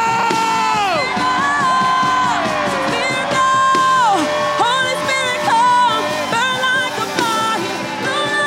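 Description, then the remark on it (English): An audience erupts in loud, sustained shouting and cheering, many voices overlapping in a dense roar with rising and falling whoops and cries that continue steadily throughout. “Now, somebody shout!”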